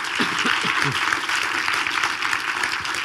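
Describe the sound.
Steady, dense applause from an audience at the Seriencamp series festival in Munich for authors Ty Franck and Daniel Abraham (James S.A. Corey), a bright crackling wash of many hands clapping at once, with faint voices and cheers briefly showing through the noise early on.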